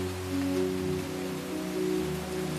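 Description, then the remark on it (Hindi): Steady, moderate rain hisses evenly at about five in the morning, a continuous wash of water falling fast onto the ground with a low sustained hum or tone running underneath; no one speaks. “आज सुबह जब चादर से सर निकालकर घड़ी की तरफ देखा तो पांच बज रहे थे और कानों में मध्यम मध्यम बारिश गिरने की आवाजें आ रही थी जब मैं उठकर अपनी बालकनी की तरफ जाने लगा तो वो बारिश की आवाजें भी बढ़ने लगी”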